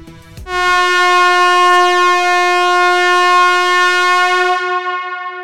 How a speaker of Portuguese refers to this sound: e pode soar a buzina que esse episódio já está começando.